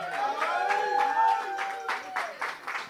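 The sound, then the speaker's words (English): An audience claps in scattered, uneven bursts for the artists who performed, while a sustained whooping cheer rises over it, moderately loud, lasting a few seconds. “Big up to all the artists who perform, man. Make some noise for them.”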